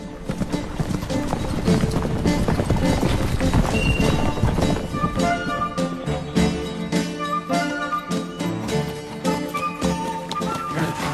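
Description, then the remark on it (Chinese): Horse hooves clip-clop in a steady, rapid rhythm of sharp knocks as horses are ridden along a rugged path, with a brief whinny and busy music-like clatter filling the background throughout. “小路崎岖，只能骑马。朋友们，这可是马，两头都危险，中间有麻烦，说的就是他。”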